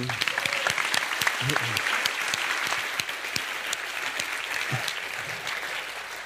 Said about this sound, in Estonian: väga äge. teeme aplaus, aplausi.